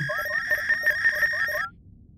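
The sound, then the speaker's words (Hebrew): A sci-fi transmission signal of a message being sent to the past: a steady electronic tone overlaid with about six quick, rising chirps in a brisk rhythm, fairly loud, cutting off abruptly after under two seconds. “טוב, שולחת הודעה לעבר.”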